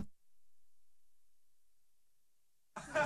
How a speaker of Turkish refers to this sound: Özür diliyorum hapşırdım pardon kusura bakmayın.